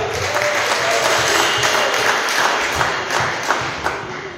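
An audience applauds steadily for several seconds, a dense, crackling wash of many hands clapping at an even, loud level, with a few dull thumps mixed in and no voices.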